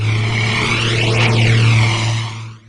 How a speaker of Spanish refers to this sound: Los sonidos de la guerra son miles de aviones volando sobre casa.